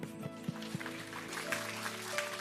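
A steady patter of applause from a church audience, continuous for a couple of seconds, with sustained musical tones humming underneath and a few sharper claps standing out.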